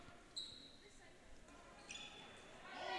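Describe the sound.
A basketball bounces on a gym floor a few times in a crossover dribble during a game between St. Clair and Marine City, with sharp sneaker squeaks and a hum of voices and crowd noise in the background.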